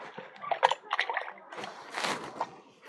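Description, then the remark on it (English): Liquid sloshes and swirls in a pot as it's stirred to mix a very slushy milk, giving irregular wet splashes and swishes at a moderate, steady level. “I'm still mixing to let them more and more freeze on the water”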